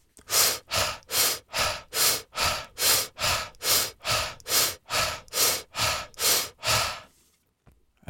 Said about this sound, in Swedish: Så när eh, vi sen har gjort det ett litet tag, kanske 5-10 minuter, då så kan vi gå över till eh, breathwork. Så vi andas väldigt intensivt. Så då kan man göra så här.